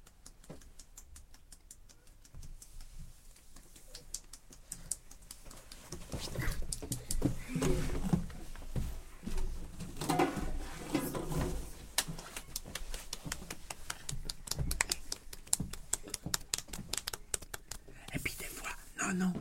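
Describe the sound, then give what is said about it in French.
Fingers tap lightly and rapidly on a surface, a busy patter of many soft taps that grows a little louder midway, with a faint whispering voice underneath. “Comme une petite souris.”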